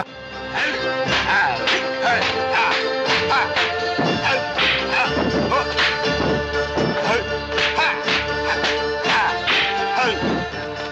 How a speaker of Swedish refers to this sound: Alltså jag, jag, får huvudvärk bara av eh, ljudet för smällarna som delas ut ja. hela tiden.